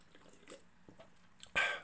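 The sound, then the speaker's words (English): Someone takes a sip of Monster energy drink from a can, with faint quiet mouth sounds at first and then a short, louder slurping gulp near the end. “Another sip of monster.”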